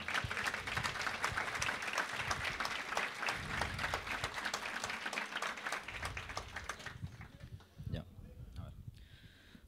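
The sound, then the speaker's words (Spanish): An audience claps for a performer before a song, with dense, fast, overlapping applause for several seconds, then it fades quickly, leaving quieter surroundings with a few scattered sounds. “Eh, un aplauso primero para que se me quite la vergüenza, por favor.”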